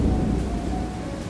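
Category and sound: nature, thunder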